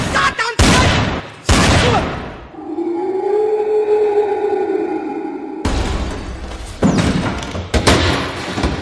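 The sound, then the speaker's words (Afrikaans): Loud gunshots crack out in separate bursts, a pair early on and a rapid volley toward the end, with a sustained low wavering howl droning in the gap between them. “Wat het ek nou net geskiet?”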